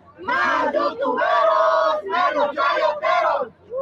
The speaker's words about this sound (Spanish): De verdad me llenó de satisfacción, me, llenó de energía positiva de que estas personas gritaran de esta manera. Vean nada más, qué padre, qué emoción, qué rico.